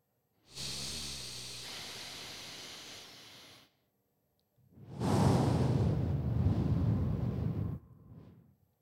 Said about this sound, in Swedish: Och nu gör vi det ganska medvetet. Nu, nu liksom hörde man att vi andas.